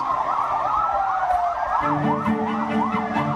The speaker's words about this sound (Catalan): Ja sentiu les sirenes.